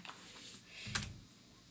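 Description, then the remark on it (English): A few quiet, irregular clicks of keys as someone types a dice-roll command (two d six) for a game on a computer keyboard, with one sharper keystroke standing out near the end against a faint background hum. “I'm so used to typing two d six every time I do anything in this game.”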